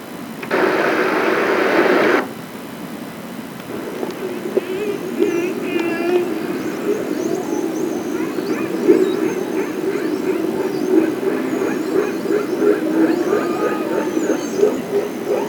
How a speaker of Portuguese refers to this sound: E vamos ouvir um pouco de golfinhos.